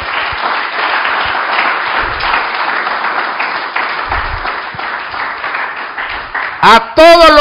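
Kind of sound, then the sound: crowd, audience clapping hands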